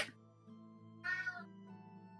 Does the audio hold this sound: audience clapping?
no